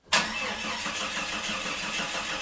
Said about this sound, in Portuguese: Ah, ah lá, pronto. Agora o carro não pega.